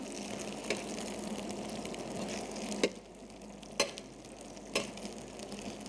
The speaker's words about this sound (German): ein bisschen umständlich mit dem Pfannenwender hier. Aber so kochen Männer, Leute. Beruhigt euch. Nicht gleich ausflippen. Okay. So, aber brutzeln ganz gut. Ich glaube, die, werden ordentlich.